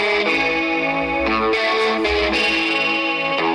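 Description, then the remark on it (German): Loud, distorted rock guitar plays a sustained melodic line in two-part harmony, thick with chorus-like shimmer, notes gliding and changing every half second or so, with no voices. “auch die Gitarre, die, die überraschend sehr schöne so äh, äh, Doppellinien, harmonische Doppellinien, also wo zwei Töne gleichzeitig gespielt werden.”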